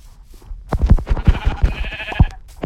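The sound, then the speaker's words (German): Video-game sheep bleating as the player hunts sheep to kill: a loud, wavering, nasal bleat with quick stuttering pulses, holding for about a second and a half before tapering off. No one speaks. “Ich krieg genau ein Schaf.”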